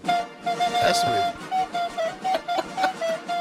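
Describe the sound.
A recorder (blokfluit), specially played in for the show, plays a long held note, then a string of short, evenly spaced notes at nearly the same pitch, clear, with a brief spoken word near the start.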